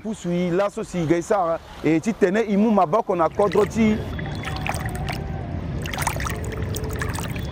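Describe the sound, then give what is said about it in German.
A voice talks for the first few seconds, then a steady, gritty wet pouring sound follows as wet sand, filled into a bucket under water, is tipped from the bucket into a boat, with scattered splashes and knocks. “Odilon füllt den Eimer unter Wasser mit Sand, sein Kollege schüttet die Fracht ins Boot.”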